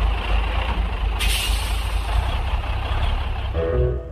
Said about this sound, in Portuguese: E diz aí que naquele instante um caminhão encostou no posto.